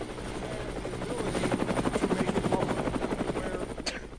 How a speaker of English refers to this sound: It's audio from the game. I, I, it took me a second. I'm like, what the fuck? Oh, helicopter.